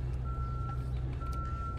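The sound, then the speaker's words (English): A steady electronic reversing beep from a car in reverse sounds at a fixed pitch in Central Park, two long tones separated by a short gap, over a heavy low rumble of idling engine and traffic noise. “Somebody get that car out of reverse.”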